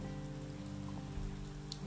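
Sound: rain falling outside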